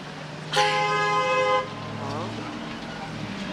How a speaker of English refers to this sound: That was a well-timed honk of the horn. That was some encouragement.